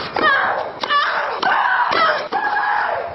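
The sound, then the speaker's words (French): Tennis player Sharapova shrieks loudly with each stroke, about five drawn-out, high-pitched grunting screams in quick succession, each starting with the sharp crack of the ball being hit. One of her roars was measured at 101 decibels, louder than a lawnmower. “Un rugissement de Sharapova a même été mesuré à 101 décibels, plus bruyant qu'une tondeuse à gazon, mais indispensable à son jeu.”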